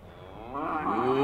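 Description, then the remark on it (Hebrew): A single low, drawn-out moo from a cow that is being told to get up, swelling steadily louder over about a second and heard on its own with no talking. “קומי פרה מטומטמת!”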